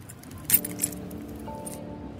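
A few bright metallic clinks of keys jangling in short, shaky bursts in a trembling hand about to open a red trunk, over a steady low hum with no one speaking.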